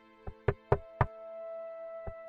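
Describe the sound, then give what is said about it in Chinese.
Someone knocks on a woodshed door: four firm, hollow raps in a quick, even rhythm, a short pause, then two more knocks. A faint steady hum sits underneath. “果不其然，静静等到了三秒过后，有人敲响了柴房的大门。”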